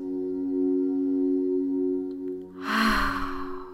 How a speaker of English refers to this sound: So, breathing in through the nose,